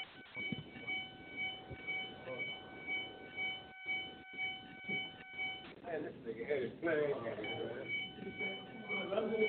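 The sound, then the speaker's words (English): A steady, high-pitched electronic alarm, coming from a call-in caller's end of the phone line, pulses in a regular rhythm for several seconds before giving way to muffled voices and line noise. “That alarm is coming from him or her.”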